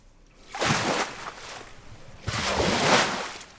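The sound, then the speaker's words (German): Two powerful waves crash one after another against a sand dune in a huge test hall in St. Peter-Ording on the North Sea, where researchers test natural coastal protection. Each is a broad roaring wash of water that swells, hisses and slowly fades, with a short lull of sloshing between them, reverberating in the hall. “In einer riesigen Werkshalle nagen kräftige Wellen an der Düne Marlins Knoll.”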